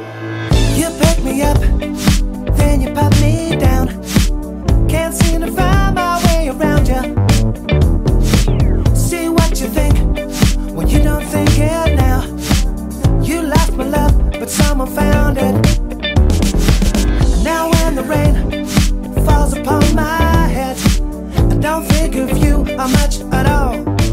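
A loud, full-band music track plays continuously, with a steady driving beat, deep bass and bright layered melodic lines that keep a lively, danceable energy throughout.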